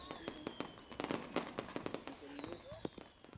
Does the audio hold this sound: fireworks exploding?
yes